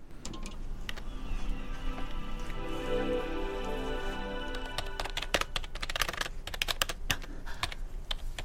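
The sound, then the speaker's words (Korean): Rapid, irregular clicking of keys on a computer keyboard as a father uses the computer in an uncle's room, with uneven bursts and brief pauses over a low steady hum. No one speaks. “아빠가 컴퓨터 쓸 일이 뭐가 있지?”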